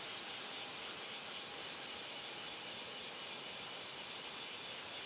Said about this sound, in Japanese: 今の音はモノレールの音です始発が動き出しました